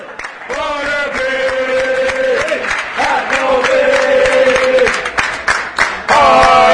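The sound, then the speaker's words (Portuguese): A large crowd of Derby football fans sings the terrace chant "I'm a Derby fan" in unison, sustained melodic voices rising and falling over a noisy stadium backdrop with scattered claps and shouts. “então a gente vai ouvir aí I'm a Derby Fan, I'm a Super Ran porque Ran é o, é o bode, né?”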